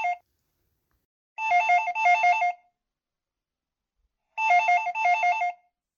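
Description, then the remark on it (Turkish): The telephone of an election office on Bestekar Street rings in the evening as ballot boxes are being opened, in repeated double bursts, each a warbling electronic trill separated by pauses of silence, with no voices present. “İşte o saatlerde sandıklara açılmaya başlanmıştı ki Bestekar sokaktaki seçim ofisinin telefonu bu kez başka çaldı.”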